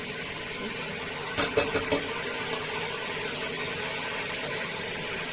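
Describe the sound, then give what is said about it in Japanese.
A steady, rushing hiss of water, the same amount as a can of tomatoes, being poured into a cooking pot holding onions, garlic, meat and canned tomatoes, with a few quick metallic knocks near the start; no one speaks. “缶と同じだけの分量の水をちょきっと入れまして”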